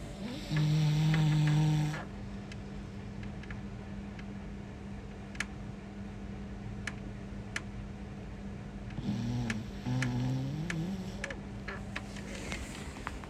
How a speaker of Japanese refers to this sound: 爆睡ですいつもこんな感じでいびきをかいて寝ているクレオタン飼い犬は飼い主に似るって言いますけど私もこんないびきをかいて寝てるんでしょうか